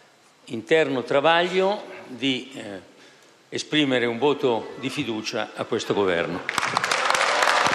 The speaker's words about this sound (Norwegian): Folk rundt ham jubler og rekker hånden mot Berlusconi i takk.